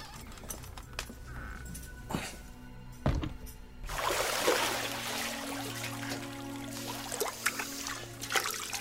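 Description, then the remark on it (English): A couple of dull knocks, then hot water pours and trickles steadily for several seconds, a continuous splashing wash with no voices. “Shall I bring more hot water, Majesty?”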